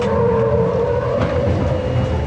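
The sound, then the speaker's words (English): A Humvee performing a rollover test maneuver at under 30 miles per hour, fitted with yellow bars to prevent tipping over; its engine drones loudly and steadily with a strained tire-scrub rumble underneath throughout, as if cornering hard. No one speaks. “Most Humvees do not have anti lock brakes or electronic stability control that prevent rollovers.”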